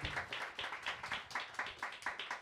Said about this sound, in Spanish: Bien, aplausos.